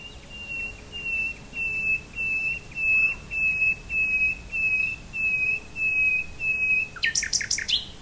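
A nightingale sings a steady series of about nine clear, piping whistled notes in even rhythm, then breaks into a quick, bright trill of higher notes, with no speech, in a recording of Clemens Brentano's poem Der Spinnerin Nachtlied.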